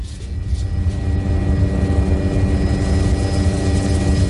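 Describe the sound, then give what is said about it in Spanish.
A parcel delivery drone's propellers buzz steadily and loudly throughout, a continuous whirring hum with a faint high whine riding on top and no voices. “Pero lo que sí te digo es que hoy en día esto ya es posible gracias al transporte de paquetería a través de drones.”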